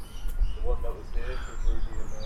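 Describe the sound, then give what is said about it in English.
Bright, quick chirps from a bird at a petting zoo repeat over a steady outdoor rumble, clear, with faint indistinct voices murmuring in the background. “I don't know what that bird animal is on there.”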